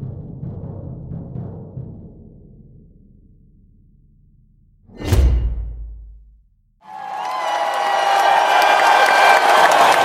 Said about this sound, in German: zum Todeskampf stirbt er vor der Kulisse einer jubelnden Menge.